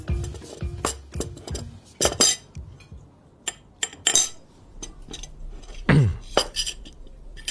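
Cutlery and dishes clatter through a family lunch: quick, irregular clinks of forks and knives against plates, with occasional louder knocks and brief scraping, and no one speaking.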